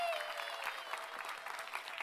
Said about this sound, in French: Est-ce qu'on peut ensemble applaudir Jésus encore oui.